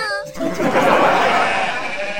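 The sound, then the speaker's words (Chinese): Wild goats bleating in a small town in North Wales, UK, where they wander the streets, jump about and eat flower beds and lawns: a short, wavering, high bleat opens, then gives way to a dense, noisy wash of sound with faint bleat-like tones threading through. “在英国北威尔士小镇啊，野山羊们也纷纷进城玩耍，跳上跳下，吃你的花圃，啃你的草坪。”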